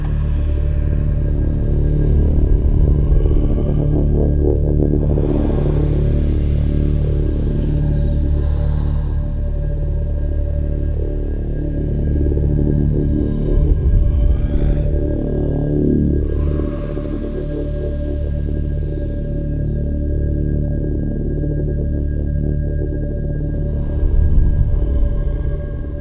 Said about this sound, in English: I added a, uh, a bell. But it's not just usually added, just played, but it's stretched sound and with a certain technique it has made as continuous sound of this one hit to a bell and it sounds like this.